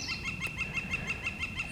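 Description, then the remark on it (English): A northern flicker calls in the mountains in a rapid, steady series of loud, ringing notes, about a dozen evenly spaced, carrying clearly over a low outdoor background with no voices. “And you can hear that flicker going off in the background there.”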